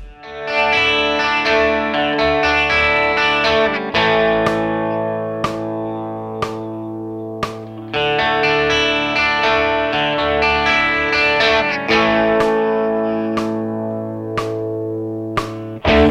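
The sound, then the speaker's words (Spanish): A Uruguayan rock song from 2002 plays with thick, distorted electric guitars holding sustained chords, punctuated by sharp cymbal or drum hits every couple of seconds; no singing is heard. “… del año 2002 del álbum ….”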